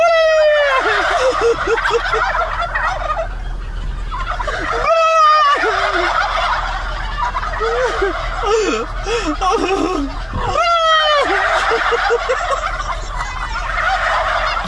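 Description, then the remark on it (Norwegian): A large flock of turkeys at a farm gobbles loudly in repeated, overlapping bursts, with a man's brief "gobble, gobble" call between waves; the whole group answers in rippling, chattering choruses that fill the scene. “så er det en fyr som kjører opp til en sånn farm med kalkuner. Og så sier han sånn goble, goble, og så svarer alle sammen”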